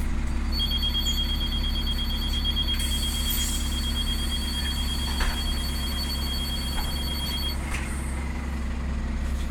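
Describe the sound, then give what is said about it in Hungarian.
An original Czech door-closing chime on a bus from the Czech Republic sounds as a steady, high electronic tone lasting about seven seconds, over the loud, constant rumble of an idling engine. “Igen, amint az hallható volt, eredeti cseh ajtózáró csengő van bennük.”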